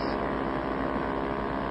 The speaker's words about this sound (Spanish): Otra lancha de motor más grande que la nuestra. Viene hacia nosotros. Viene directamente hacia nosotros. Y trae un faro rojo que se enciende a intervalos. Es la policía,